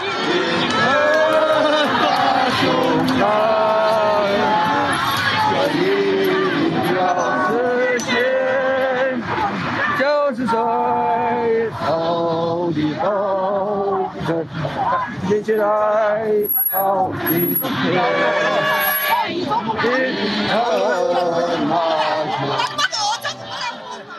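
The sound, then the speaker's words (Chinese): A crowd of elderly protesters in winter clothes and masks sings together at a White-Hair Movement street rally at Zhongshan Park, in a loose, uneven unison, the melody wavering and somewhat weak, with chatter and murmuring mixed in throughout and a few brief dips between phrases. “好，大概听到这样子的状态，我觉得其实唱的声音、歌声没有很团结，就是有点有气无力的，蛮辛苦的感觉。”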